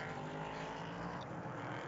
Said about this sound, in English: IMSA Prototype Challenge action from the Mid Ohio Sports Car Course, the fifth of six rounds.